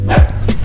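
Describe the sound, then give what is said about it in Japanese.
A household dog gives a couple of quick, sharp barks at home, short and loud, with a faint background hum and no talking. “ごめんなさいちょっとうち犬がいるんでたまに犬の鳴き声がするかもしれないね”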